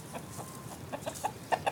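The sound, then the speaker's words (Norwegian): Chickens cluck in a barn, a series of short, uneven clucks that grow a little louder and quicker toward the end, with no voices. “Sånn høres det ut når trellen Rufus fra Roma får vite at han skal sove i et fjøs.”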